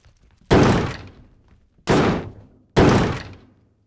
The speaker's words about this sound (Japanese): 俺たちがハンマーで壁を壊し中の隙間にライトを当てると